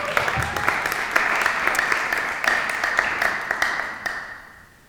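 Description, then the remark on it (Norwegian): An audience breaks into applause for a speaker, a dense, steady wash of many hands clapping with sharp individual claps popping through, holding strong for several seconds before tapering off at the end. “Gi ham en applaus.”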